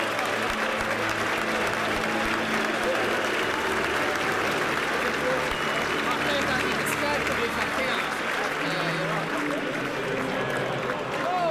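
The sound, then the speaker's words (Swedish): A huge football stadium crowd roars in a dense, continuous wall of sound, with massed voices singing the club anthem together in unison while United supporters try to drown it out, loud and unbroken throughout. “måste jag ändå säga att eh, sådana här typer av hymner är ju, är ju fantastiska där om man har sådana här.”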